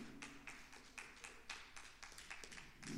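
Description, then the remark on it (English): Scattered, sparse handclaps from a few audience members during a sermon, irregular sharp claps, with a low background hum and no talking. “Some of you clapping.”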